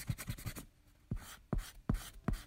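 A pencil scratches across the paper of a small notebook as phrases are written down: a quick flurry of short strokes, then a few firmer, evenly spaced strokes after a brief pause. No voices.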